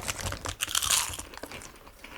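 Crisp crunching of potato chips being chewed, a rapid run of brittle bites and crackles over about two seconds, loudest near the middle, with no voices.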